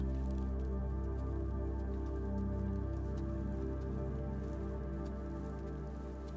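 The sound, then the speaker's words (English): A light rain shower begins in a forest. The first drops patter in soft, scattered taps on the leaves of the trees, quiet and steady over a continuous low, humming drone, with no voices. “As you meander, through the lightly populated forest of trees, you feel the first drops of rain on your skin, also hearing them tapping the leaves of nature.”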